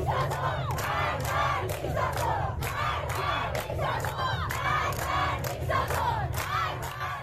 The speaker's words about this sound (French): Lors des funérailles de Macha Amini, des femmes ont retiré leur foulard pour protester contre le régime iranien. Aux côtés des hommes, elles ont scandé Mort au dictateur une protestation très courageuse qui visait directement Ali Khamenei